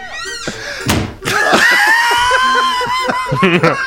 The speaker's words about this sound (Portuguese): Cara, que, que porta é essa que bate aí? Fecha a janela por causa do vento, porta cara. Porta é fechando. Vento, cara.